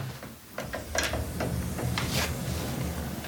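A sliding door rolls open with a low rumble, punctuated by several short clacks and scrapes, fairly close and moderately loud, with no voices.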